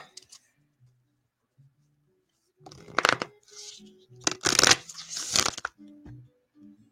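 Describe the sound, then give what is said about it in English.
A deck of affirmation cards being shuffled in several quick, crisp bursts of riffling and flicking, fairly loud, with brief pauses between and a voice murmuring faintly in the gaps. “Shuffle, shuffle, shuffle, right?”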